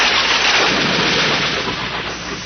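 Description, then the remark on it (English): A loud, ear-splitting thunder crash from a lightning strike hitting the tip of a mast, a dense roaring burst of noise that fills the whole clip and fades only slightly toward the end. “With an ear splitting crash, a jagged fork of lightning crackled out of the clouds and hit the tip of the mast.”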